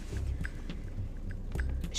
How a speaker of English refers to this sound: um, sorry, I'm eating a pickled sausage and it's so good. mm, love that shit.